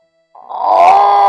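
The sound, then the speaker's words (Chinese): A voice imitates a lion's roar for a piglet in a story who, holding a candy in its mouth, roars like a lion instead of grunting: one loud, rough, sustained growl that swells quickly after a brief silence and holds strong to the end, with no words spoken. “呃，小猪就发出了狮子般的吼声，”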